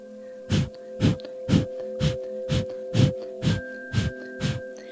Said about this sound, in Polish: To dobry start naszej medytacji, bo oddech ognia, kapalabhati, oczyszcza krew, uwalnia wątrobę, czyli centrum naszych emocji, zwiększa przepływ tlenu, więc jest idealnym transmiterem Twojej złotej energii celu. Kontynuuj oddychanie oddechem ognia.